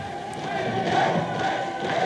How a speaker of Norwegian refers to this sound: Og til slutt det endelige resultat, et klart nei. Jubel i motstandernes hovedkvarter.